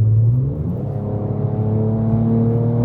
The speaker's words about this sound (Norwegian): Kunne høre den deilige V6-en kan jeg si jamre? Er det riktig? At den er litt sånn klagete, den lyden ja. Eh, på en sånn murrende V6-er. Det er litt annen lyd enn det er i en rekke sekser.